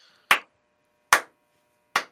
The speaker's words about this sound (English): Slow clap. It's slow clap worthy, man.